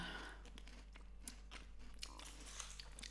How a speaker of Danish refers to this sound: Men jo, den, den, den, den knaser helt vildt meget. Som at spise sand.